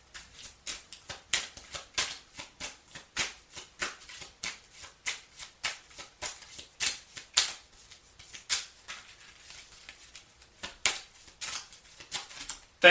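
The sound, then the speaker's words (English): Oracle cards being shuffled and drawn for a Cancer 2022 reading: a steady run of crisp, papery flicks and riffles, repeating in quick bursts for several seconds with no talking over them. “Cancer, your card came out.”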